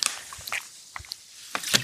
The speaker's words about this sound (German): Entschuldigt bitte diese furchtbaren ähm, Schlürfgeräusche. Auch wenn der trinkt, dann trinke ich auch.